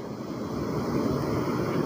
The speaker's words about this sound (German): freundet sich mit den Wellen an, die heute ganz schön mächtig sind, glaube ich.